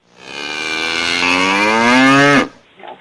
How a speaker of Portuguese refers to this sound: E eu acho que essa vaca que tem aí é sua mãe ou sua irmã